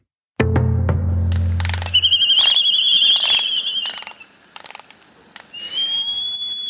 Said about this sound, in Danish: Det er en albatros